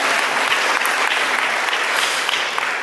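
Steady audience applause for the speaker at the end of a spiritual talk fills the whole stretch, a dense wash of many hands clapping at an even, sustained loudness with no voices standing out.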